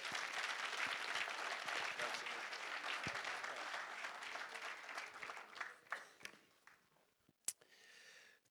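An audience claps steadily in a dense, sustained burst of applause that gradually thins out, ending with a few scattered claps and a sharp final clap before quiet.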